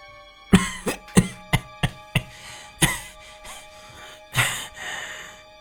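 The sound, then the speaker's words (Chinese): A man who has just opened his eyes coughs: a run of about seven short, dry coughs in quick uneven succession, followed by a pause and one longer, raspier cough with a breathy tail. No speech. “咳嗽了几声”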